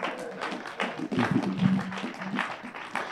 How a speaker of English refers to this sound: Clap your hands.